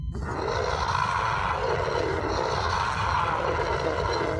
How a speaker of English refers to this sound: It stared at me through hollow eye sockets and opened its mouth wide to reveal an endless darkness. A deafening scream rang out from it.